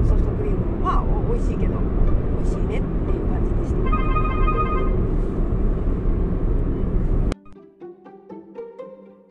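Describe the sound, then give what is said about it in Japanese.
A phone's electronic ringtone chirps briefly in a quick repeating pattern for an incoming call from the speaker's husband, moderately loud but half-buried under steady roaring traffic noise, before the scene cuts to a quieter space. “ン教の声が入っちゃったでしょうか夫からねあの電話がかかってきました”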